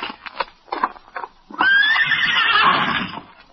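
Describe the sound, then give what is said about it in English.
A horse named Victor gives a loud, shrill warning whinny that rises and wavers for about two seconds, preceded by a few soft snorts and shuffling sounds, at night under a full moon. “Victor seems to be giving a warning.”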